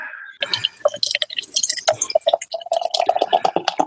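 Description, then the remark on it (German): Beer glugs and splashes as it's poured from a can, a busy run of bright fizzing and liquid spatter settling into a steady foaming pour with no talking. “Dose, auf jeden Fall Dose, jawohl.”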